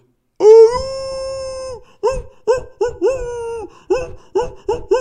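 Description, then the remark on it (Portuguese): A person imitates a wolf howl with one long sustained wavering note, then follows with a quick series of about seven short, yipping hoots in a steady rhythm, loud. “Qual que é a fita do lobo?”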